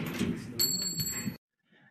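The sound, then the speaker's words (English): A padlocked metal bar, wrenched at with big cutters in the cold, falls off with a sharp clang, its bright ringing tone hanging for under a second over a noisy, rumbling background before cutting off abruptly into near silence. “and the bar fell off.”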